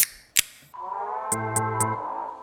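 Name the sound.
beer bottle being opened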